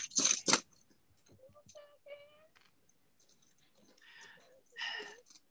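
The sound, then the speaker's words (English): Rummaging through dice: two sharp, loud rattling bursts up front, then quieter scattered clicks and clacks, with a faint murmur partway through and another rustling burst near the end. “This is the ASMR of Ronnie finding dice.”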